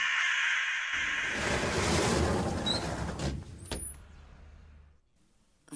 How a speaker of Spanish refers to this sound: ¿Qué? es ese ruido? Tranquilícese, son solo unos cuervos peleándose por unas carroñas en la calle.